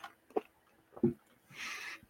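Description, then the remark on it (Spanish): Quiet, close sipping of a drink: two soft gulps or slurps, followed by a brief breathy hiss, with no talking. “Bueno, vamos un traguito. Salud.”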